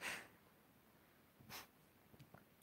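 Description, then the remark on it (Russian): Two sharp nasal sniffs, the first right at the start and another a second and a half later, followed by a couple of fainter snuffles, otherwise quiet; the sniffing comes from a neurosis flaring up under strain and work. “Извиняюсь за шмыгание, у меня просто от напряжения и работы опять немножко так открывается невроз, но я стараюсь лечить его.”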